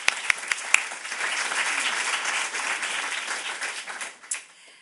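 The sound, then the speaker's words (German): An audience at the Stadtbibliothek Stuttgart applauds steadily for several seconds to welcome guest Jörg Armbruster, a dense wash of many hands clapping that starts with a few distinct claps and fades out near the end. “Ja, ein Applaus dafür ist, glaube ich, gut.”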